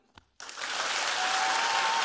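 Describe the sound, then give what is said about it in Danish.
An audience bursts into applause after a brief click, clapping to choose which story they want to hear, the clapping swelling quickly into a dense, steady roar of many hands that keeps building to the end. “politik derovre, så skal I klappe nu.”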